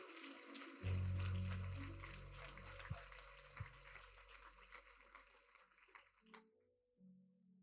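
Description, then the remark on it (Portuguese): An audience at a sermon breaks into applause, a dense, sustained patter of many hands clapping for several seconds over a low hum before cutting off abruptly. “Irmão, se é para aplaudir, aplauda.”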